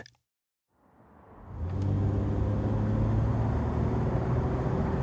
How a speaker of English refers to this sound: In Queens, New York, Musk drives down the Long Island Expressway. It's after midnight, and looking ahead, he sees the bright lights of the Manhattan skyline beckoning.